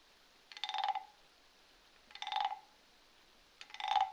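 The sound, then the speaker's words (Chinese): Frogs croaking: three raspy, buzzing calls about half a second each, spaced evenly roughly a second and a half apart, standing out over a quiet background hiss with no talking. “两只小青蛙，三只小青蛙， 你继续的数着，数着你听到的青蛙叫声。”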